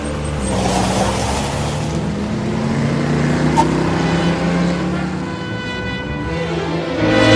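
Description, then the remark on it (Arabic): A car engine roars and climbs in pitch as the driver pulls away fast after money is put in the car, a loud, continuous rev that keeps building across the whole stretch. “صابر حط الفلوس في العربيه والسواق ابتدى يتحرك يلا وراهم بسرعه”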